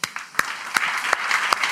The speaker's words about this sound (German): Wollen wir mal für all die Mitarbeiter und für die Kindermitarbeiter da oben und für die, die gestern Stunden in der Teen Zone Vorbereitung gemacht haben, Tage vorher hat Zeugs geholt. Wollen wir für die mal applaudieren?